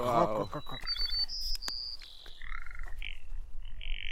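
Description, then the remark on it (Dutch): A bird gives a series of short, raspy, frog-like croaking calls, with a few sharp high chirps mixed in and a brief burst of talk at the start. “Als een soort kikker.”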